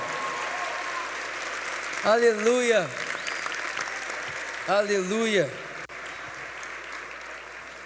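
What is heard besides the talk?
audience applauding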